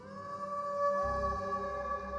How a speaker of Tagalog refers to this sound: Hindi na binalik sa pagkakaayos dahil natataranta na rin sila sa alulong ng mga aso.